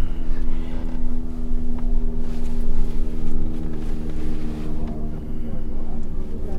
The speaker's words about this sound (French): Pourquoi il y a autant d'hélicoptères ici